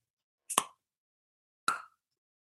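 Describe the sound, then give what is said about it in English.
Two sharp, loud tongue pops made with the mouth, spaced about a second apart, each a quick bright click with a short resonant tail, with no talking. “Um, but the, my favorite noise that I can do is um, is a tongue pop, which is really loud.”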